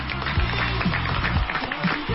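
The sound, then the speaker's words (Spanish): Steady applause for DJ César Álvarez Evento, with a dense crackle of clapping hands running through the whole clip, loud and unbroken, with some voices murmuring underneath. “Un aplauso para DJ César Álvarez Evento.”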